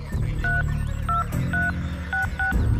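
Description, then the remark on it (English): Five short dual-tone keypad beeps as a phone number is dialed on a satellite phone, spaced unevenly at a steady hand's pace, over a low, continuous hum. No one speaks. “They laugh about that and I grab the phone, satellite phones, and I'll dial.”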